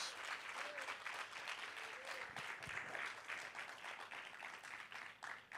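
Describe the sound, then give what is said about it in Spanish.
An audience applauding God one morning, a dense wash of many hands clapping steadily at a constant loud level for several seconds, with faint voices calling out underneath. “Todo el que ame la gracia, la misericordia de Dios, denle un aplauso fuerte a Dios.”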